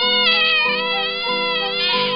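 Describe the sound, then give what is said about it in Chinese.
A voice imitates the shrill, drawn-out screech a young house cat made when the household's bigger cat cornered it: one loud, continuous wailing cry lasting about two seconds, its pitch stepping up and down in a strained, whining yowl. “就头三个月有很多次，我是听到小猫在非常凄厉的发出这种尖叫声。”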